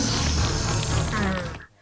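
A designed sound effect of a slimy snake slithering and coiling around a dog: a wet, slimy sound, dense and textured, creeping continuously for almost two seconds before trailing off into quiet, with no voices present.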